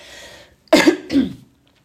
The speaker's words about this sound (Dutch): Excuus, even een kuchje.